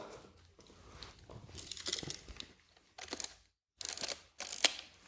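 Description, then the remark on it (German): Mechanical camera sounds: a camera's shutter release clicks several times, with crisp snaps and brief whirring, ratcheting bursts between them, separated by short pauses. No one speaks. “Das ist nicht nur das, ist nicht nur das schönste Geräusch, das ist auch die schönste Kamera.”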